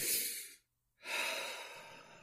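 Two long, airy breaths with a short pause between them, each a soft breathy rush that slowly fades. No one speaks.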